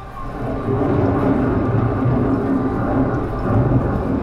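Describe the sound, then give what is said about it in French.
A thunderstorm rumbles steadily, with deep, continuous rolling thunder and a dense wash of rain filling the background, loud throughout with no voices. “Ils annoncent un orage de grêle et je viens d'acheter le dernier parapluie du quartier.”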